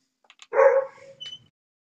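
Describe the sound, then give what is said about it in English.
A single dog bark rings out, a sharp burst that trails into a short whine, followed by a faint yip, with no one speaking. “Your dog's got a right to speak.”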